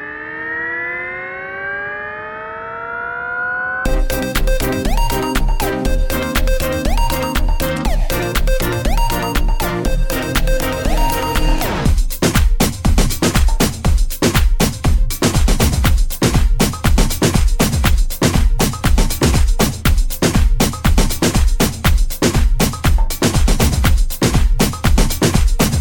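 A loud, futuristic electronic pop summer hit opens with a rising, siren-like synth wail, then settles into a pounding, steady dance beat under bright repeating synth lines, with no talking.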